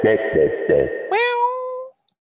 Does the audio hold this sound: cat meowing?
yes